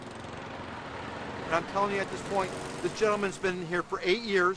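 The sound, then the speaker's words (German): A lawn mower engine, used by a resident, drones steadily throughout, a constant mid-level rumble, while a man's voice starts talking over it after a second and a half. “Als dieser Anwohner den Bürgermeister hört, greift er lieber schnell zum Rasenmäher.”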